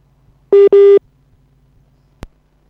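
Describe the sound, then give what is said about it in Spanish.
A phone line tone sounds two short, loud electronic beeps in quick succession, followed by quiet and a single sharp click near the end. “¿Hay alguien que te está llamando a tu teléfono?”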